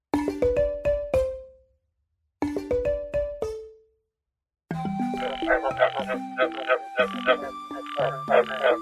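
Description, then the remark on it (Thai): Croaking frog calls pitched into a bouncing tune: two short descending runs with pauses, then a denser chorus of buzzy croaks and stepping tones, loud with no talking. “อ้าวเจ้ากบมาส่งเสียงอะไรเนี่ย กบอบอบกบร้องเป็นเพลง ร้องเป็นเพลงกันใหญ่”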